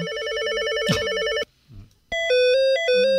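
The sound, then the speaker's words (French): An electronic office desk telephone rings with a warbling, alternating two-tone trill, pauses briefly, then resumes with a stepped melodic ring pattern, loud with no talking. “D'ailleurs, en parlant de téléphone, il y a un son qui existe encore et qu'on a tous entendu, c'est celui des téléphones de bureau.”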